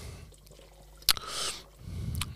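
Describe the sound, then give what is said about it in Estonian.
A sharp glassy tap followed by a short, airy slurping sip of Lehmann wine from a glass, then soft low swallowing sounds; no one speaks. “nii, oota, ma rüüpan selle Lehmani ära, see on mm.. ei raatsi kuskile kallata”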